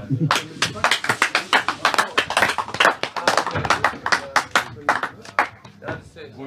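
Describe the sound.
A round of applause: many hands clapping in a dense, irregular patter that stays fairly loud for several seconds before thinning slightly at the end, with faint voices murmuring underneath.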